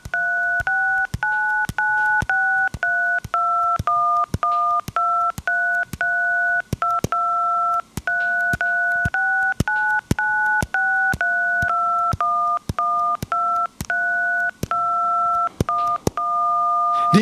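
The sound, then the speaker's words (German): A simple melody tapped out on a phone keypad, a steady run of short dual-tone beeps with brief gaps between them, loud, with no voices. “kann schnell dann das auch auf eine quasi Handytastatur übertragen”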